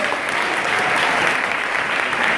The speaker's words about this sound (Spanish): Démosle palmas al Padre, al Hijo y al Espíritu Santo de Dios.